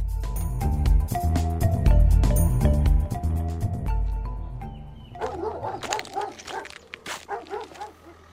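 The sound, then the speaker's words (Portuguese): Music plays for the first few seconds, then gives way to police dogs of a canine unit barking in quick, overlapping bursts with a few whimpers, fairly loud and continuing to the end, at a farm on the outskirts of a town where the police are searching. “Vejo que seus cães estão prontos.”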